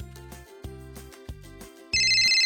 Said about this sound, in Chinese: 刚放下的电话又响了，又有人找罗伊帮忙。